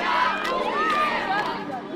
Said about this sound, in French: Sur la place centrale, les habitants se serrent dans leurs bras, des voitures passent en klaxonnant, les applaudissements et les cris de joie fusent.